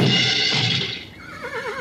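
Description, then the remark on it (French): A horse, Jolly Jumper, lets out a loud whinny after its reins are pulled back sharply to brake, starting with a bright burst and trailing into a wavering, quavering neigh that fades toward the end. No one speaks. “Ça va, professeur oui, ça va, Jolly Jumper a bien senti que j'étais pas un expert en cheval. Il a voulu me tester, je crois.”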